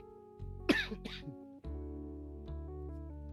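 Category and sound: human body sound, coughing and throat clearing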